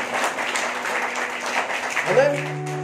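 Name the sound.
audience applause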